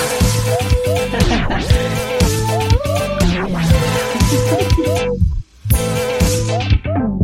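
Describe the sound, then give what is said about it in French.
A short, relaxed instrumental theme tune plays loud, with a bright melody over a steady bass pulse, briefly cutting out near the end before picking back up. “Voilà, écoutons ce petit générique détendant avant de s'atteler à cet arrêt du tabac.”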